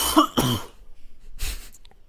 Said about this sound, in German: Ich muss mal husten, ey, es ist echt, man ist nicht mehr gewohnt, gewöhnt, so viel zu quatschen, ey.